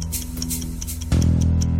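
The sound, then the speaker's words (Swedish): A clock ticks in a steady, quick rhythm over a low droning musical bed that swells louder about halfway through, with no voices. “Alltså inför den matchen så vill man ju bara tick-tack, Tick-tack.”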